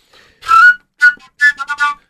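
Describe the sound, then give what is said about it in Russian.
A folk toy whistle plays a short, lively melody: one sustained shrill note, a quick chirp, then a fast run of four bright notes. It is loud, with no talking. “И когда говорили, что вот, э, типа, дети там выбегают, колядки, свистульки, да, свистопляска, да, наш русский свистопляска, да, праздник, который ассоциируется с Новым годом.”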